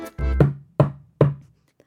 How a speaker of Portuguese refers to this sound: O lobo chegou em frente à porta e bateu.